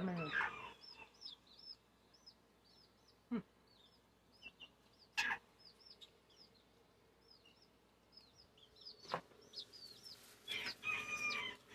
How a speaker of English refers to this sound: Um, got some, you can probably hear the baby chickies. That's an ASMR of baby chickies. There's actually three baby chickies.